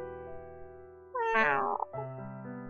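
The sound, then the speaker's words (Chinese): A single soft, drawn-out meow from a cat named Anan, with a gentle rising-then-falling pitch, set against a steady low instrumental hum of background music. “安安就像是在回应他的话，绵腻的叫了一声。”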